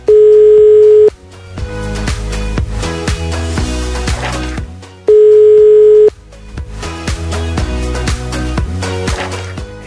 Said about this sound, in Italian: Umberto sta componendo il numero, vediamo se ci risponde.